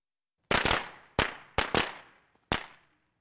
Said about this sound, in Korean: 그때 갑자기 어디선가 폭죽 터지는 소리가 들렸다.